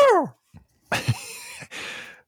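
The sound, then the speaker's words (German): A voice imitates a macaw's screech: a short falling squawk, then a loud, harsh, strained shriek and a raspy trailing screech, unaccompanied. “Das war ein Ara.”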